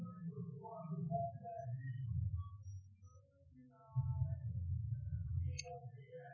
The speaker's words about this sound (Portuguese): passando um carro de som.